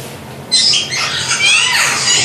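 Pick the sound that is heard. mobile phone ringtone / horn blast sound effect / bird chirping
bird chirping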